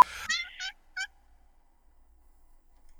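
A pet cat named Octavia, having just jumped up into her cat bed, lets out three quick, high-pitched squeaky chirps in the first second, the first a bit longer and louder, followed by near silence with no one talking.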